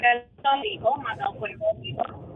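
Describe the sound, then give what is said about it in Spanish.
A caller from Tampa speaks through a phone line on speaker/Bluetooth, thin and muffled with a narrow, tinny tone and some distortion, talking continuously for a couple of seconds. “No te escucho bien. Coge el teléfono, mi amor, porque es que está en el speaker que está bien.”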